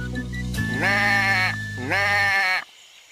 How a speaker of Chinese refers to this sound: 快看呐，那山羊卡在刺丛里面出不来了。咩咩咩！